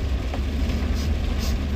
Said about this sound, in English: Anyways, as an update, and I apologize for the windshield wiper, but we actually do. We absolutely, I absolutely need it. It's raining pretty hard.